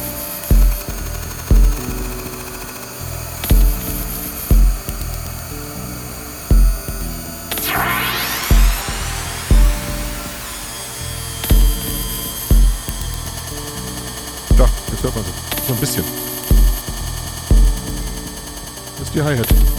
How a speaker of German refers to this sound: Larsynthesen wird aus dieser Hi-Hat dieses schöne Rauschen. Was man jetzt pitchen kann. Und filtern.